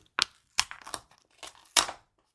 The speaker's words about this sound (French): c'est la lettre qui s'ouvre. Et c'est parti.